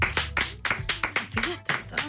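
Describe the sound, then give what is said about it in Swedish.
Hand clapping from a small audience, a steady run of about ten sharp claps in two seconds at moderate loudness, with faint voices underneath. “Ja, jag, jag, jag, jag slentrian applåderade.”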